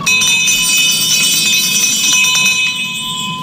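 A loud, continuous electric game show bell rings steadily for several seconds, the TV show bell rung with the Hurtado sisters' catchphrase "campana y se acabó", with a bright metallic buzz and no voices over it.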